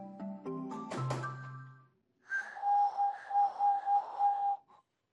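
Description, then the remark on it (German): Beijing pigeon whistles, made from gourds, bamboo and reed, sound in flight: a steady, airy whistle tone swelling and fading in quick pulses for a couple of seconds, after an opening burst of layered, higher tones. “Schon als Kind liebte er es, wenn der Himmel voller Flöten war.”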